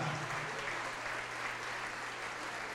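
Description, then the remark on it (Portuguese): A church audience applauding the Lord Jesus as people come forward, a dense, continuous wash of clapping at a strong, even level from start to end, with a low steady hum underneath and no clear voices. “Vamos aplaudir mais, vamos aplaudir mais.”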